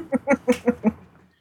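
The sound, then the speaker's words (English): A puppy lets out five quick, high yips in a steady burst, fairly loud, then falls silent; no one speaks. “but sometimes Maya makes noise. I do make a concerted effort to keep her quiet.”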